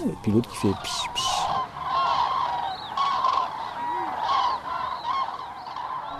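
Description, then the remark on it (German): Loud, honking bird calls repeat throughout, a flock of cranes trumpeting over a steady wash of background noise, with a brief burst of harsher calls near the start. “Die Leute früher dachten immer, dass die Kraniche kleine Vögel auf ihrem Rücken transportieren, denn sie konnten sich einfach nicht vorstellen, dass ein so großer Vogel diesen Psch laut macht.”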